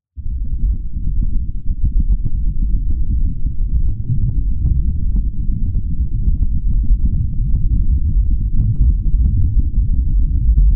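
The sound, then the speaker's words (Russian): A continuous, muffled low rumble of wind noise mixed with deep ground vibration from seismic events, recorded on the surface of Venus by an instrument that a crane arm set down apart from the lander. Steady and fairly loud throughout, with faint crackles on top and no voices. “Нам удалось зафиксировать сейсмические события и шумы ветра тоже.”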